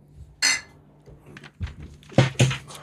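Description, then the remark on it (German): A few bright glass clinks ring out as people toast, one clear chime early, then two quick knocks together near the end, with soft tableware rattling between them and no talking. “Komm hier, stoßen wir nochmal.”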